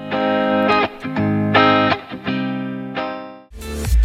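A pop song plays on the radio station Antenne Bad Kreuznach with a loud, steady mix of chords and beat, sustained harmonic tones with rhythmic breaks, and a bright burst near the end; no one speaks over it.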